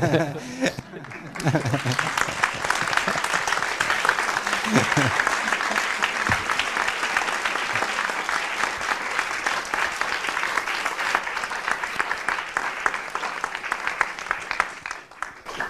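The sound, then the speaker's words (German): An audience at a film event bursts into sustained applause, signalling they would recommend the film, a dense, steady wash of many hands clapping that holds strong for about fourteen seconds before thinning out at the end. “Ich entnehme Ihrem Klatschen, dass Sie ihn gerne weiterempfehlen.”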